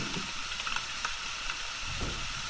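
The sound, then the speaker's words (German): A steady, dense patter of rain falls without pause, a continuous soft crackling hiss with scattered brighter ticks and low rumbles, no voices. “Solange es regnet, kannst du mir die Novelle doch vorlesen.”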